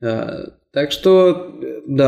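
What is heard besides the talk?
burp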